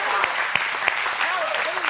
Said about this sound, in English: Can we just give him a cheer and a clap?